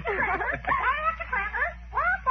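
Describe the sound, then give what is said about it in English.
A parrot squawks and chatters up in a tree in a continuous run of warbling, rising and falling cries, moderately loud, with no one talking over it. “Even Polly's safe. Listen to her up there in that tree.”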